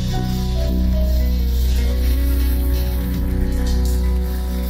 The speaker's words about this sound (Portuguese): E o restante, vamos aplaudir Jesus.